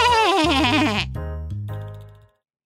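sheep bleating

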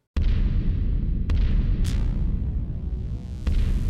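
explosion sound effect

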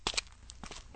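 footsteps approaching

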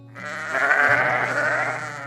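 sheep bleating

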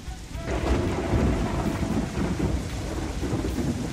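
rain falling

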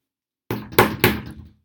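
knocking on a door

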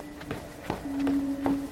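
footsteps

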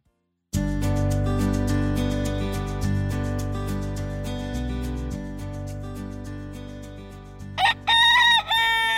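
rooster crowing

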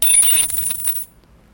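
coins dropping

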